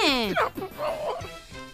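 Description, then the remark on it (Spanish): A person imitates a dog barking, letting out a couple of loud, falling "woof" calls in quick succession, followed by softer voiced murmuring. “Dijo el perro.”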